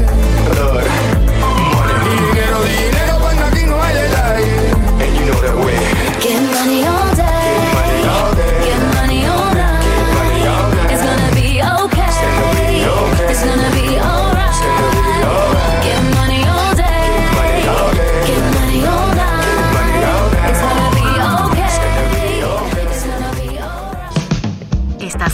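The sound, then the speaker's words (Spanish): A loud, upbeat pop song with a steady beat and layered instruments plays continuously with no talking during a break on the radio program A la Una with Salvador García Soto, then cuts off abruptly near the end. “Voy a la pausa y regreso, lo dejo con música, música que llama al dinero.”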